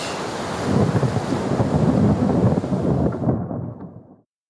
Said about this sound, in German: Die Wellen sind mittlerweile so hoch, dass sich die Männer an Deck bei jeder Schwankung des Schiffs auf gleicher Höhe mit Wienke